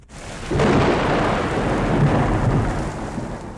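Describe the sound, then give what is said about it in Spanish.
A deep, rolling rumble of thunder from a big storm with lightning bursts in after a brief hush and keeps growling loudly for several seconds, with a steady hiss like heavy rain beneath it. “Pues si es que venía una gran tormenta haciendo... Y chisca, chisca, con los relámpagos.”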